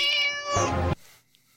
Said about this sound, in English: Uh, the Washington State Cougars. The meow is way better.